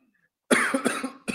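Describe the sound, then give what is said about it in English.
A forceful cough bursts out after a brief silence, a harsh rasping fit with a couple of pulses and then a second short cough, loud and alone with no talking. “yeah, I hear the virus.”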